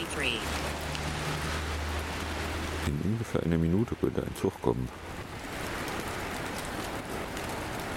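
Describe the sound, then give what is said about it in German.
Steady rain hisses throughout, a dense even wash of falling drops, with wind from the west at 27 to 45 and a temperature of 7.5 degrees. A person speaks briefly over it, and a low hum plus a few tonal, wavering pulses break through around the middle. “Der DVD sagt Luftdruck 10138, Temperatur 7,5, Luftfeuchte 94, Niederschlag 0,1, Wind aus W mit 27 bis 45 und wir haben Regen.”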